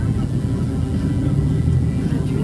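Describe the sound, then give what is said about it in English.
Busy street traffic with taxis and buses everywhere, people walking in the middle of the road and cars parked everywhere; a steady low engine rumble fills the scene without pause, fairly loud. “Taxis are everywhere buses are everywhere.”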